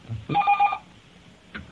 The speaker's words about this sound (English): that phone is just going to ring and ring and ring. nothing I can do about this one. Anyway, well, I, I think I, I'll jump in here then while your phone's ringing.